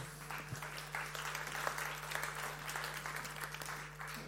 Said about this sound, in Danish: Så, er det ikke skønt at høre børnene derude?